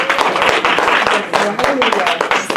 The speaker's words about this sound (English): That's good if you were just clapping for me. But since we're supposed to be giving a hand clap to the Lord, Hallelujah.